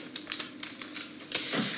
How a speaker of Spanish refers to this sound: Uno de los papeles fuera. Y ahora vamos a sacar el otro, el gordo, el que rodea al transformador.